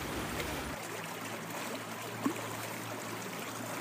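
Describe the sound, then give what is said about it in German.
A steady, gentle babble of the well-filled Kaltbach stream flowing through a castle courtyard, trickling continuously, with a faint low hum underneath and no voices. “Hören Sie das Plätschern im Hintergrund? Dieses ruhige und gleichmäßige Geräusch?”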